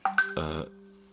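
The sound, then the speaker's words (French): A phone message notification goes off: two quick tonal blips, then a short low buzzing burst that trails into a fading hum, with no one talking. “T'as pété ouais, Non, j'ai un message.”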